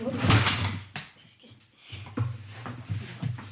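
Someone tumbles off a chair: a loud clattering thump followed by a second knock, then scuffling movement and brief muffled vocal sounds.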